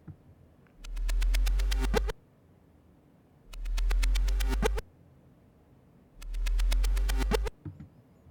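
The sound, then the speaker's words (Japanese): A reversed sound effect, made by playing audio backwards and adding panning and stereo-widening plugin effects, repeats three times, each burst swelling up and then cutting off abruptly, with a heavy low rumble under bright tonal layers and short quiet gaps between. “音を逆再生してエフェクトも加えつつ、効果音を作ってみました”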